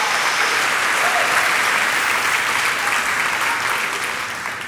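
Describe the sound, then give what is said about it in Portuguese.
A large audience applauds and cheers steadily for several seconds in praise of God, a dense, loud wash of clapping that fades slightly toward the end, with no clear speech over it. “Só quem recebe dá um glória a Deus.”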